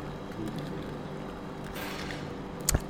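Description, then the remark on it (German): Ice cubes clink sharply against a glass holding too many ice cubes, once near the end, a brief bright knock over a steady, low background hiss. No one speaks. “Oh, da klingt nicht richtig, Martin. Was ist da los? Ah, zu viele Eiswürfel drin.”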